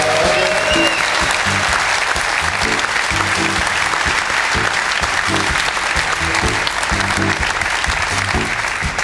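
Steady, dense applause from an audience for a guest being introduced on a show, a continuous crackle of many hands clapping at an even loudness throughout, with faint low tones underneath.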